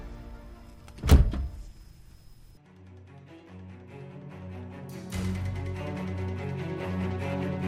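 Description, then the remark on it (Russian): A man quickly slams a house door shut after pushing a dog away: a single loud, solid thunk, followed by a muffled low rumble and a steady hum that swells slightly near the end. “Человек отогнал собаку и быстро захлопнул дверь.”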